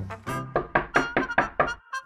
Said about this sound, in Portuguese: pelas 7 e 5, quando o senhor despachado bateu à porta do senhor vagaroso, este ainda dormia profundamente.